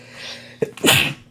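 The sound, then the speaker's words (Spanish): A single loud sneeze bursts out after a quick sharp intake of breath, with a faint low hum in the background beforehand. “Salud.”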